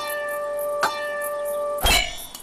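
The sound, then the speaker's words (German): A bell rings with a sustained metallic tone, struck again partway through, then a sharper, louder wooden-sounding clack near the end, a repeating tune made by a white horse walking slowly up a hillside in the Little Red Hills above Darlington. Fairly loud, with no voices. “Dong, dong, klack. In den Little Red Hills über Darlington war eine seltsame Melodie zu hören.”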